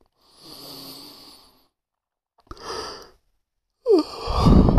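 A tired person yawning: a long, breathy drawn-out exhale, a pause, then shorter airy gasps and a rougher final stretch of breath. No talking.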